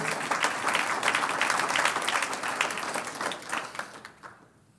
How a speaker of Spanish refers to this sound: Un aplauso al Señor por su intervención.